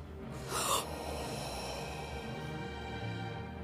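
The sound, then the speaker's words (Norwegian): A person draws in a long, deep, rasping breath, imitating the creature Kvitauget inhaling before breathing out its ice breath in a game, with a sharper snort-like burst at the start, then a steady breathy rush lasting several seconds. Fairly loud. “Puste inn.”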